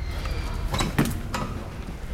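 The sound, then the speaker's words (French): A few sharp knocks and thuds of doors banging shut, with creaking wooden floorboards and a low rumble beneath, spaced irregularly over a couple of seconds in the grand vestibule of the palace of the president of the Assembly. “Soudain, les portes claquent, les planchers crissent.”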